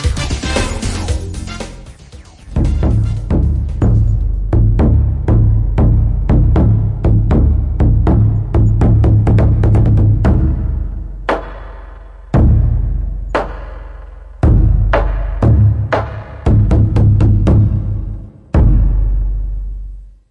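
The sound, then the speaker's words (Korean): Deep, booming strikes on a large drum ring out loudly in an uneven rhythm of many beats with brief pauses. Each hit leaves a heavy low resonance. No one speaks. “이게 큰 북소리라고 합니다.”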